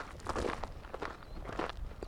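Steady footsteps crunch along at a walking pace on an outdoor walk at twilight, about four or five soft, gritty steps in two seconds, with no voices over them.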